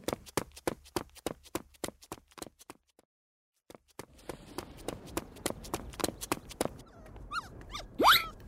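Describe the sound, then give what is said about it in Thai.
A puppy, just hit by a rolling ball, scampers with a quick, even patter of small steps and short yips, goes quiet for a moment, then scurries again before ending on a high, rising yelp. “เอาเจ้าหมาน้อยบอลกลิ้งมาโดนแรงไหมขอโทษทีนะ อะไรอะอุ๊ยอุ๊ยน้องน่ารักจัง เจ้าหมาน้อย อันนี้เขาเรียกว่าพันอะไรนะ ไม่แน่ใจเหมือนกันแฮะโอ้ยแต่หน้าตามันน่าสงสารจังโหเจ้าหมาน้อยทำไมร้องแบบนั้นล่ะ”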